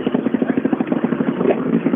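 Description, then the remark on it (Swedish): The engine of the first untuned four-wheel-drive rally car arriving, from the Gullabo RC club, runs with a rapid, regular throbbing beat, a gruff mid-pitched rumble holding fairly steady in loudness for the whole two seconds, with no voices over it. “Ja, när första otrimmade fyrhjulsdrivna bil eh, kommer in till oss”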